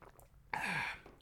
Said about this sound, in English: So, um, quick sip of water, water break balls, don't mind me balls.